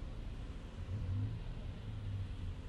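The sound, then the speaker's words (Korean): A truck engine rumbles steadily and revs up as the driver raises its speed a little, a low, continuous drone with no voices over it. “운전사는 눈을 가늘게 뜬 채 현명하게도 앞을 향해 시선을 돌리고는 트럭의 속도를 조금 올렸다.”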